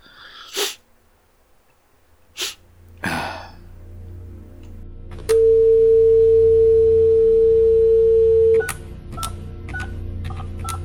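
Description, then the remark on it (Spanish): A telephone is dialed: after a few sharp breathy bursts, a steady dial tone hums for several seconds, then gives way to a quick run of short, clear keypad beeps. “A ver el teléfono. Aquí hay uno.”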